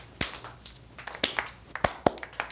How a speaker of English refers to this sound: Now, do not applaud in unison. That is collectivist. We will now applaud unmoved and unnoticed by the applauders around us.